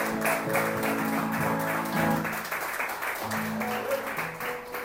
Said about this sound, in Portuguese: Se é para Jesus, aplauda com vontade.